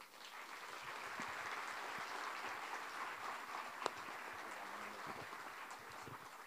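A full-house evening crowd claps steadily for a speaker being introduced, in a dense, sustained wash of applause lasting several seconds, with one brief sharp clap standing out midway and no voices over it.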